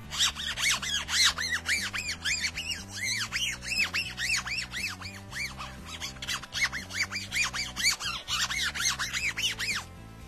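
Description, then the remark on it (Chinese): A fingernail scrapes back and forth across a phone's textured back panel, comparing the sandblasted metal and diamond-cut finishes, producing a rapid series of shrill, squeaky strokes in a steady rhythm for about ten seconds, with no talking. “但是相比喷砂的金属工艺来说啊，钻雕工艺有一个不好的地方呢，就是整个手机摸起来会有一种塑料感啊，大家可以听一下指甲划过这个背面的声音对比。”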